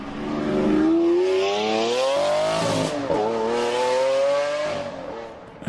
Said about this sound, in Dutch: Dus maar je moet eh, het geluid opzoeken van een Lamborghini. Als, als, die, eh, als, die, als die, die motor gaat